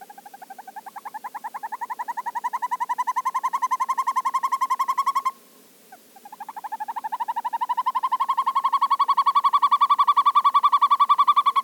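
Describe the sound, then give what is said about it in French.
A boreal forest bird calls in two long, rapid trills of mellow repeated notes, each swelling louder, separated by a brief pause. Clear, with no other sounds. “Et comme à l'habitude, voici la voix de l'oiseau à l'honneur aujourd'hui.”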